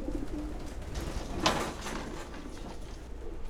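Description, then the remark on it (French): The speaker's own pigeons coo softly in low, throaty murmurs against a quiet, airy background, with a brief rustling burst partway through and no one speaking. “Mais mes pigeons, ils me connaissent.”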